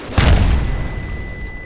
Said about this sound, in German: Der Knall der Explosion war laut und das Klingeln in den Ohren raubte ihr die Orientierung.